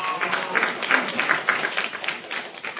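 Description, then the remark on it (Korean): A crowd claps steadily for a few seconds, a dense, continuous patter of many hands with small swells in loudness and no break. “네, 박수, 우려와 같은 박수.”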